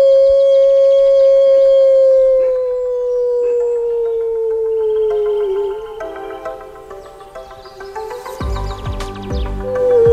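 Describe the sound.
A person imitates a wolf, holding one long, loud, wavering howl that slowly slides downward in pitch, with other layered howling tones joining toward the end and a rougher burst of noise.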